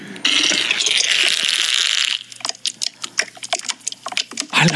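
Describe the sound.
A voice imitates a debt collector's motorbike failing to start: a loud, sustained rasping whir, then a run of uneven sputtering bursts that never catch.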